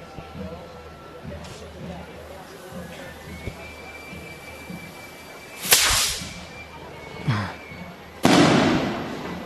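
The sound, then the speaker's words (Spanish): A firework rocket, the first rocket of the day, is set off at 9 in the morning as a time signal. It gives a sharp crack, then a smaller pop and a loud final bang with a long rumbling tail. Faint voices and background murmur run underneath. “Es a las 9 de la mañana. Primer cohete.”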